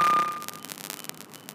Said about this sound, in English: Sorry, there's a loud ass beeping. I don't know if you guys can hear that,